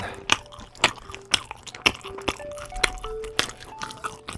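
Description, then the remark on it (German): Chewing of a sausage, with wet, squishy bites repeating in a steady rhythm about twice a second, loud, with no talking. “Soll ich nochmal kauen?”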